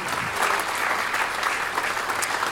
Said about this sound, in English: Would you put your hands together, please